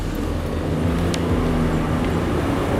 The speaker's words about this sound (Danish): sidder jeg her i Mette Korsbergs lille hvide bil, som hun kaster gennem gaderne i Roms augusthede